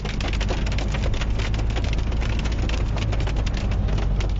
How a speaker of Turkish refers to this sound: Sağnak başkent Ankara'da da etkili oldu. Çubuk ve Mamak ilçelerinde yollar suyla kaplandı.